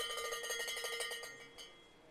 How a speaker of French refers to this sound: Il y a les cloches, il y a les supporters qui sont là, il y a la presse.